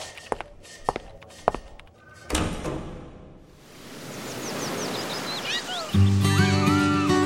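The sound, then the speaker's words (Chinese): A few footsteps are followed by a door being pushed open with a broad rushing swoosh, then a bed of chirping birds and ambience before music enters at the end. “Hello，只要继续往前走，推开门就是佐编茶水间。”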